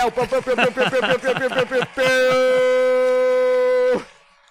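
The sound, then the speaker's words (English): An alarm siren sound effect played as an acquisition alarm celebrating the sale of a business: about two seconds of rapid, warbling whoops, then a loud, steady blaring tone that holds for two seconds and cuts off abruptly. “it's the acquisition alarm.”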